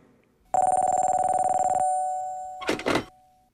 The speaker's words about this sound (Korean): 그로부터 며칠 뒤 양락의 집에 전화 한 통이 걸려오는데.